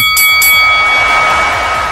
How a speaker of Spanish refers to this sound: suene la campana.